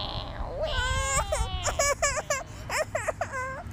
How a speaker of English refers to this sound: I don't think I don't think we could see anyone in this rain and I can't hear anything over … crying.